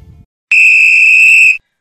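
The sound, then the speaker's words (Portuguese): A single loud horn blast, a steady, shrill, high-pitched tone lasting about a second before cutting off, preceded by a brief low rumble and no talking. “você que você estava querendo falar antes da corneta.”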